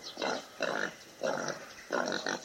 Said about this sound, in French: Alors pendant que pendant tu parles, il y a un sanglier qui est passé derrière nous, c'est pour ça qu'on entend ces bruits.